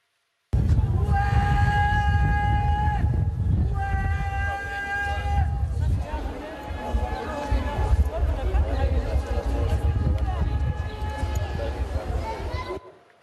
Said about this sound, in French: Voilà, des guetteurs qui, sont là malgré la présence de la CRS 8 sur place. Vous les entendez crier, en fait, ils, signalent euh, aux autres guetteurs le, passage des voitures de, police euh, en hurlant.